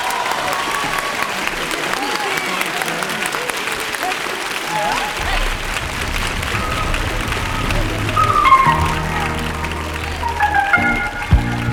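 Steady, dense audience applause, a continuous crackling wash of many hands clapping, with low music gradually rising beneath it in the second half.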